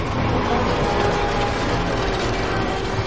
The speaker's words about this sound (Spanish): Edith cruza la galería y se mete en el ascensor. Coge al perro. La reja se cierra, el mecanismo se activa y el ascensor baja.